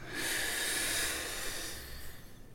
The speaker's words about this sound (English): Okay, what if we start by slowly breathing in and out together. Deep breath in together